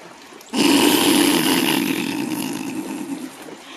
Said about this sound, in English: 100% chance. F you. 100% chance of rain right now, I would say so. Sounds like it, too. Up feels like it. Yep, that's rain. Yep, that's wet.